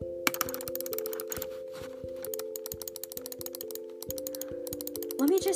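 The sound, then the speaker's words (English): Rapid bursts of crisp computer keyboard and mouse clicks repeat over and over in uneven clusters as someone saves a document 18 times, with a steady droning tone running underneath throughout. “When you write up an essay or an important document and you go to the little handlebar where you have to save it, and this is what it sounds like when you save it literally 18 times.”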